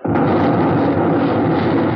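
The battleship Arizona, at the end of the jetty, blows up and bursts into flames: the explosion bursts in suddenly and holds as a loud, dense roar with deep rumbling underneath for about two seconds, steady and unbroken, with no voices.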